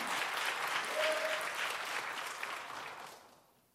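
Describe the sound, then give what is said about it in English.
An audience at a church service claps their hands together in a dense, sustained burst of applause, then gradually fades away toward the end. “Clap your hands on that.”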